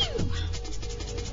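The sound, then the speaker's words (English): A person's quick, high-pitched sneeze that sounds like a kitten's, a single squeaky burst sliding downward in pitch at the start, with faint music continuing in the background. “does have a tendency to sneeze like a kitten.”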